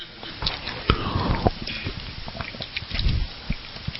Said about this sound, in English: Well, I'm going to take a drink of water because I see I've lost some of you already.